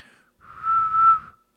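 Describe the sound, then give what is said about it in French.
A single whistled note, the first note of a TV theme tune attempted by someone learning to whistle, held steadily for about a second, a little breathy, with airy hiss around the tone and no talking. “J'aimerais faire le générique de Game of Thrones euh, en sifflant, mais même pas la première note.”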